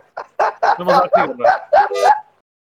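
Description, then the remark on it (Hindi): A person imitates a train whistle with about seven short, loud hooting bursts in quick succession, voiced up close with no other speech around it. “ये ट्रेन की सीटी बजा रहा है”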